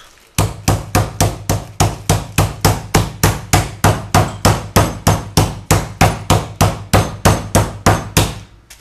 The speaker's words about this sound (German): und klopfen die erstmal mit dem Fleischklopfer etwas Platz